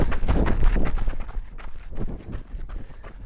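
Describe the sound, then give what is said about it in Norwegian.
Quick, steady footfalls of someone running the first interval of a workout into a headwind on a windy day, a little over halfway through, thudding rhythmically over a rough whoosh of wind, loudest at first and growing fainter toward the end. No voices. “Vi er i gang på det første draget og har løpt litt over halvveis.”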